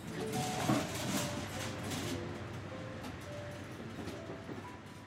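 train running on rails

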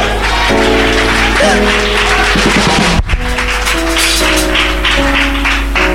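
audience clapping

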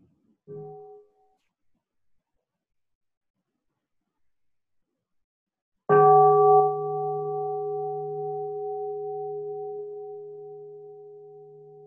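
bell ringing

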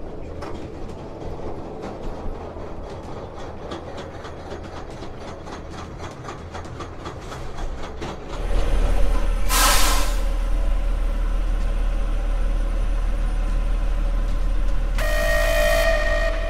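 train running on rails

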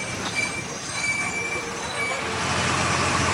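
inside a moving bus

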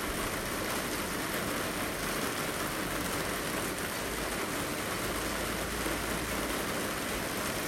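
rain falling

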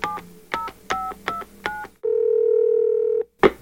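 telephone dialing tones

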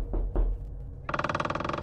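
knocking on a door

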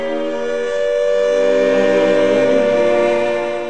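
air raid siren wailing

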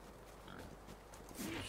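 pig grunting

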